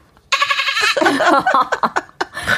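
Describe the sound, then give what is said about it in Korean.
A person mimics a baby goat with a high, quavering bleat, followed by choppy, bleating bursts that trail into laughter. The sound is fairly loud. “아기 어. 염소?”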